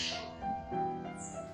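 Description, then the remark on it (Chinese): A harsh, crow-like bird call from a large black bird with a big yellow beak, not a crow, at a hotel on an island in Singapore; a few rasping, nasal notes with sustained harmonic tones, heard alone without talking. “大家有没有听到一些很那个不是很很美妙的鸟叫声？ 有点像乌鸦，但其实不是乌鸦， 是一种黑黑的嘴，特别大的嘴，是黄色的那一种鸟，就感觉会钓鱼的那个鸟。”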